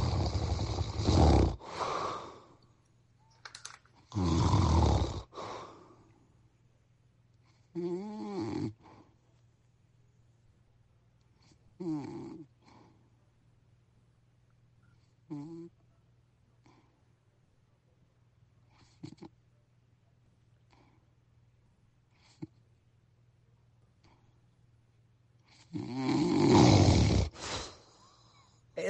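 A person's rough snores come every few seconds, growing weaker, then stop in a breathing pause from sleep apnea, with near silence before a loud, gasping snore bursts back. A low steady hum runs underneath.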